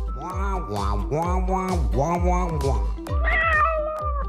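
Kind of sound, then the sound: animal, cat meowing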